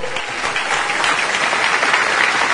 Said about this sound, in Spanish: ¿Quiénes son las personas aquí que están por primera vez en un evento de esta naturaleza? ¿Quiénes son? Por favor levanten la mano, levanten la mano. Yo quiero que le demos un aplauso, por favor.